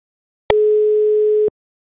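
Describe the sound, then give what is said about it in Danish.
A telephone ringback tone on an outgoing call to a panel member in northern France: one steady, mid-pitched electronic beep lasting about a second, starting and stopping abruptly with faint clicks, heard alone with silence on either side. “Han prøver vi lige at ringe op til her og se, om der er bid på...”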